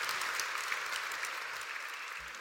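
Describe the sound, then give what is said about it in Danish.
A crowd applauds two guests steadily, a dense patter of many hands clapping at a fairly even level throughout, with no voices standing out above it. “Giv dem en kæmpe stor hånd.”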